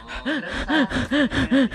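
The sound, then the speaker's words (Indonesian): A voice imitates labored, uneasy breathing with a quick, rhythmic run of about five or six voiced gasps, each a short rising-and-falling heave, fairly loud, with no words spoken. “nafas gue udah mulai nggak enak belum sakit nih masih nggak enak doang masih resah gak enaknya aduh pak kayak resah gitu loh nafas kayak oh”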